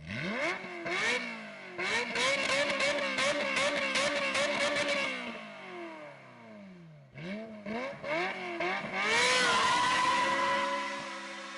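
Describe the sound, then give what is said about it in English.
A high-pitched Ferrari 355 sports car engine revs hard and wails, rising and falling through several sharp throttle blips, then climbs again to a loud, screaming peak. No one speaks. “it is just that perfect high pitch wailing mm. revving noise it's just like from when i was a kid that's what i like”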